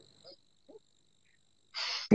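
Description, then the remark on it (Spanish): A couple of faint breathy catches, then a loud, sharp sneeze burst, cut off by another abrupt burst right at the end. “también es un estornudo, ¿eh?”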